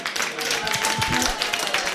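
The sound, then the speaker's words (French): An audience applauds on the radio station La Première, a dense, steady wash of many hands clapping that holds at an even loudness throughout, with faint voices mixed in underneath. “on peut les applaudir”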